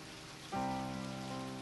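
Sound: rain falling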